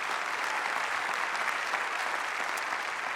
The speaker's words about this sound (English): If you believe that, somebody clap your hands for Jesus.